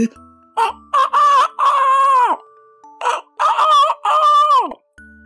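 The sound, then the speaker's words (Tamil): A rooster crows twice in a row, each loud cock-a-doodle-doo rising in short bursts and ending in a long, drawn-out call that falls away, with no talking. “அப்படின்னு பயங்கரமா சத்தம் போட்டுக்கிட்டே இருந்துச்சுமா எனக்கு ரொம்ப பயமா இருந்துச்சு”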